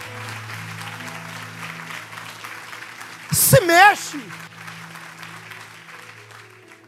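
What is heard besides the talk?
audience applauding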